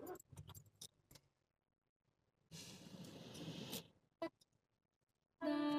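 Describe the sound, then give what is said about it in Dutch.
Keys jingle, then a stalled car engine cranks and restarts in a rough burst of noise. It cuts off with a click, and a bright tonal sound starts up right after as the car's music restarts, playing a healing mantra. “Mijn eh, auto die sloeg af. En ehm, dan start dus alles opnieuw op, ook de muziek.”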